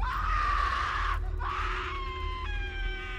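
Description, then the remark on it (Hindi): Loud, sustained screams from people present as railway police open a foul-smelling trunk taken off a train near Madurai: two long cries with a brief break between them, the second trailing into a wavering shriek, over a low background rumble. “कुछ देर बाद railway police उस संदूक के ट्रेन से उतरलस संदूक के खोलल गई वहां मौजूद कुछ लोगन के चीख निकल गई”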